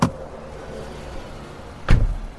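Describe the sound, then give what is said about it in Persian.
A car door is opened and then shut about two seconds later as someone gets back into a car parked on Italia Street near a dead-end alley, two solid thumps with a quiet, low background hum between them and no talking. “راهم و کج کردم و برگشتم توی ماشین منتظر نشستم تا اونا برن”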